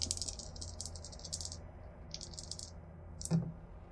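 Two dice rattle rapidly in a cupped hand for a few seconds, pause, rattle again, then clatter once onto a table with a sharp knock, rolled in a game. Fairly quiet, with no talking.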